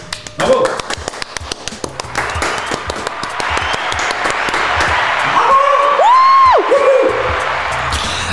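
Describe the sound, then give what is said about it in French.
A crowd bursts into steady, dense applause that swells and holds, with whoops and a high, sustained cheering shout rising over the clapping near the end. “Hello les amis vous savez que nous sommes présents dans 36 pays grâce à vous Est-ce que vous le savez Alors applaudissez-vous”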